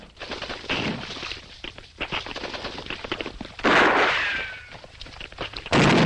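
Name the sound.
gunfire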